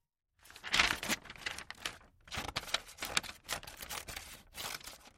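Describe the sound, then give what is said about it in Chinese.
Scissors cutting paper into thin noodle-like strips to make a paper beard, with crisp, rustling snips and crinkles arriving in a steady run of irregular bursts with short pauses between. No one speaks. “早早起来的父亲在昨天拿回来的纸上画好了胡子，东吉帮他用剪刀剪成面条一样的细条，然后用线缝起来，做成了一把蛮像那么回事儿的胡子。”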